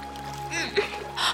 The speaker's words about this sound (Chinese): 只见河水翻腾，几乎淹没视线。